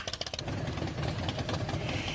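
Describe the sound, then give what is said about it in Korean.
A Harley-Davidson motorcycle, customized by its owner, idles, opening with a few quick chugging pulses before settling into a steady, throaty rumble. No one speaks. “리디아 씨는 출산 후 할리 데이비슨을 사서 직접 자신이 원하는 대로 손을 봤다고 하는데요.”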